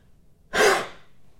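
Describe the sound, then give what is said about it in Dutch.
A single short, forceful cough-like huff from the throat, a breathy, barking exhale like a seal, fairly loud, fading quickly with no talking around it; a voice exercise to clear the vocal cords. “Het klinkt een beetje als een, eh, als een zeehondje.”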